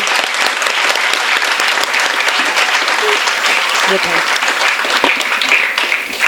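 Sustained applause from an audience thanking a speaker before audience questions, a dense, steady patter of many hands clapping at once, loud, continuing without pause for several seconds.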